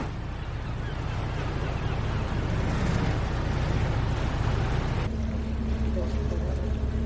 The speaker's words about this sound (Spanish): ferry navega por el agua dejando una gran estela de espuma blanca.